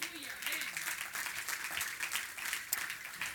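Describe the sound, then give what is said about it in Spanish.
A church audience applauds the Lord during a sermon in a dense, steady wash of clapping that holds at an even loudness for several seconds, with faint voices calling out underneath. “No le un aplauso al Señor.”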